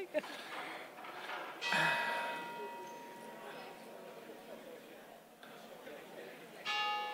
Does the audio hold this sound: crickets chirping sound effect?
no